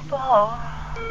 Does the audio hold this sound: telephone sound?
yes